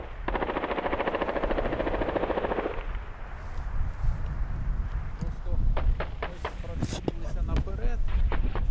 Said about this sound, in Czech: Trochu dál byly pak slyšet dopady dělostřeleckých nebo minometných granátů. Já to vlastně nepoznám, jak to zní a vlastně jsem se na to ani neptal,